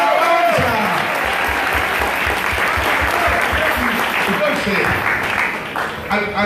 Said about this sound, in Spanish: Si usted no cree, denle el aplauso.